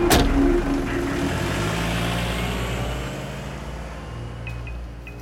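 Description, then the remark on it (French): A waiting car's engine hums steadily and its low rumble slowly fades as the vehicle pulls away, heading for the Sofitel hotel in Bangkok. The drone is loud at first, then gradually softens over several seconds, with no voices. “Victor monte dans un véhicule qui l'attend, direction le Sofitel.”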